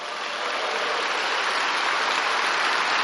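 An audience applauding together to glorify the creation of the human being, a dense, steady wash of clapping that holds at an even loudness for the whole few seconds, with no voices standing out above it.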